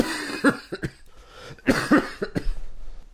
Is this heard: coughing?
yes